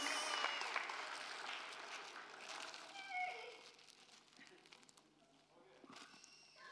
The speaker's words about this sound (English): Okay, so round of applause. That was the drama.